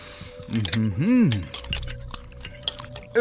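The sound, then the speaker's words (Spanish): Cutlery clinks and scrapes against plates in quick, scattered taps as men eat, while a voice hums a long, appreciative "mmm" early on before the clinking continues alone. “Lentamente, los platillos, licores, dulces y el resto de las ofrendas fueron devorados para dar paso a pilas de platos sucios y copas usadas.”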